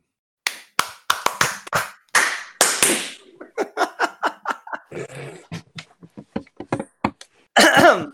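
Sharp hand claps beat out a quick, uneven rhythm, dozens of crisp slaps in bursts, with some laughter breaking in midway and a loud burst of laughter at the end.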